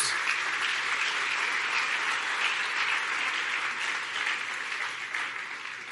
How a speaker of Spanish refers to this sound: Dale un fuerte aplauso de alabanza a Jesús.